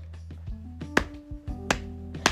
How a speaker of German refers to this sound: Falls ihr euch fragt, worauf ich gerade klatsche, ich klatsche auf meinen Oberschenkel, wie immer.